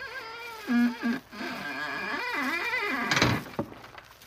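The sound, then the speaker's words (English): A theater's stage door creaks open with a long, wavering squeal of the hinges, ending in a short wooden thump as it swings wide. No one speaks. “Here's the stage door, Margot.”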